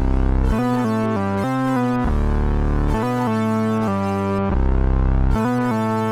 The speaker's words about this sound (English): And then in the choruses, you've got that really beautiful stereo kind of synth happening.